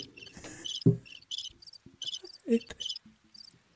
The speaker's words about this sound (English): What's that? The crickets. I had, I had to put the crickets on after that.